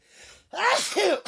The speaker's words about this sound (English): God bless you, little heart. I couldn't even fight it to hit the sneeze button.